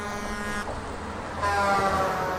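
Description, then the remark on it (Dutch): Truck horns honk at night on the viaduct over the E17 at Gentbrugge and Ledenberg, sounded by truckers protesting a 70 km/h speed limit. Two blasts: a short steady tone, a brief gap of traffic rumble, then a louder, longer blare of several overlapping horn pitches. No one speaks. “Getoeter van een paar baldadige truckers die protesteren omdat ze sinds een paar dagen maar 70 per uur mogen rijden op dat viaduct in plaats van 90.”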